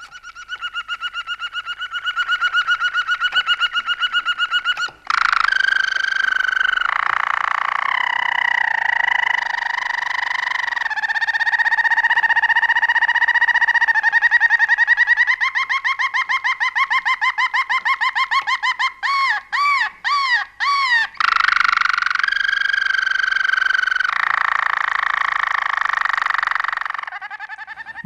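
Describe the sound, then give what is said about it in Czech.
A canary from Náchod, placed fourth in a radio singing contest, sings loudly and continuously, pouring out long sustained whistles, rapid warbling trills and brief choppy chirps in varied phrases with no pauses. “Na něm se jen tak tak za jeden drápek zachytil kanár svobodníka Richtaříka Eduarda Richtaříka z Náchoda.”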